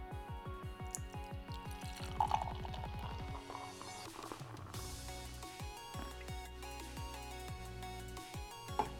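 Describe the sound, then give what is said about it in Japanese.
Beer glugs vigorously into a glass, poured to make extra foam, the gurgling pitch rising steadily as it fills, then settling into fizzy, bubbling foam with a few light clinks. No one speaks. “じゃあせっかくなのでねあのちょっと泡多めにしてちょっと苦みを抑えた感じで飲んでみたいと思います、まあ、どんな感じに変わるのかねやっていきますちょっとドボドボっていきますね”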